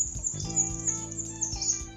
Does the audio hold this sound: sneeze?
no